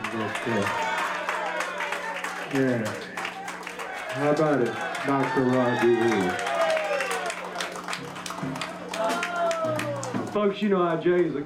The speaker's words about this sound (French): I want y'all to give the young man that's in the house a great big round of applause